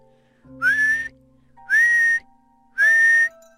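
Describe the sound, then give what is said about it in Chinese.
Three loud, shrill whistle blasts, blown hard, each about half a second long with a quick rising start and steady high pitch, separated by short pauses, with no talking. “他悄悄地溜过去，使劲地吹哨子，”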